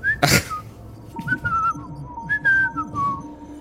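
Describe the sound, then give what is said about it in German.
Someone whistles a short, casual tune of a few sliding notes, moderately loud, while slipping unobtrusively behind a counter, with a brief breathy burst at the start and faint low background noise underneath. “während du dich unauffällig pfeifend hinter den Tresen begibst und dahinter verschwindest, nimmt dich die werte Frau Fischklon nicht wahr.”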